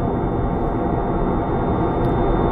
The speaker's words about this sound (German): Das ist ein direkter Überflug. Genau so fühlt es sich an, als fliege ich ins Flugzeug direkt über meinen Kopf. Was für ein Krach!